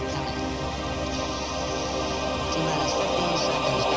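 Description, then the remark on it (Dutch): A 1987 synth-pop song by a British musical duo plays steadily at full volume, with dense layered synthesizer tones and a constant beat filling the few seconds, no talking over it. “Je hoort hier het eh, Britse muzikantenduo dat in de jaren 80 vele hits scoorde.”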